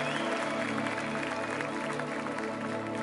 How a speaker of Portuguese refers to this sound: Aplauda o Senhor aí no seu lugar. Se você foi alcançado pelo Senhor nessa noite, aplauda o Senhor mais forte. Faz um barulho santo aí no seu lugar.